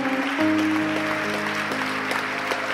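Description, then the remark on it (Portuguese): An audience at an Easter church service applauds the Lord in a steady, dense wash of clapping while sustained keyboard chords ring underneath, shifting pitch a few times. Nobody speaks. “Vem aqui para frente, em nome de Jesus, e vamos aplaudir muito o nosso Senhor.”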